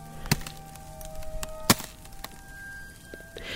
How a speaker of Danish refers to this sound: Det tør ganske let. Ned under mine fødder, der, er, der kan jeg høre isen. Jeg kan høre isen knage.